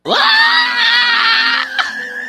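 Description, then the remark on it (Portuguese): A singer's panther-like scream, played back: a single loud, sustained scream with a rough, growling edge, rising sharply at the start and holding for about two seconds before a brief break and a trailing tail. No talking. “Solta o grito da pantera”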